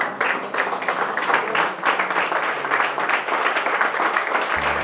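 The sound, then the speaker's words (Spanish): A crowd at a church service applauds God after a prayer in the name of Jesus, many hands clapping in a dense, continuous roar that holds at an even, fairly loud level throughout with no voices standing out. “Si se atreve, denle un fuerte aplauso a Dios.”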